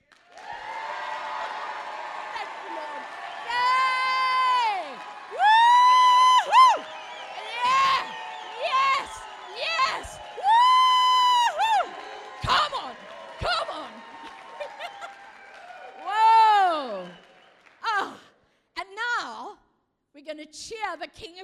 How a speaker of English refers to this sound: And what we're going to do is we're going to applaud and cheer this beautiful nation of ours. You ready? Let's go for it.